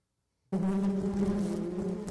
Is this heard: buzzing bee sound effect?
yes